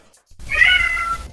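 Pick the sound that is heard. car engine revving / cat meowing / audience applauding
cat meowing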